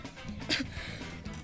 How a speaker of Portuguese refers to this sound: Desculpa, gente, estava tossindo.